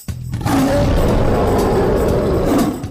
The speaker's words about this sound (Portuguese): Por isso que ruge o leão.